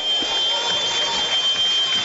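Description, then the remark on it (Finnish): A long buzzer drones steadily for the full two seconds in a basketball arena hall during a game, loud and unbroken, blended with the broad roar of a crowd. “Ja Summeri soijaa hallissa pitkään”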